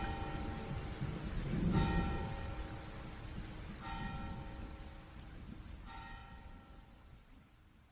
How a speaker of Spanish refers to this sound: Solo suena en el largo silencio la campana que tocan los ángeles.